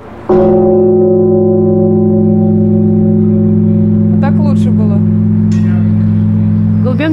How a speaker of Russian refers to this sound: А вам, вы чем-нибудь уши-то закрыли? Лучше, конечно, закрыть. Первые два удара до затухания колокола.